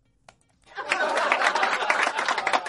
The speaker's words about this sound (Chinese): 大嘴巴王鹏上台鞠躬，马上开说，掌声鼓励鼓励。